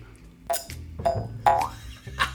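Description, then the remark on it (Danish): A jew's harp, used as a contestant's buzzer in a quiz game, twangs four times in quick succession, each pluck a springy, buzzing boing with a wobbling pitch, loud with no talking. “Der er en jødeharpe over hos H, som bosser.”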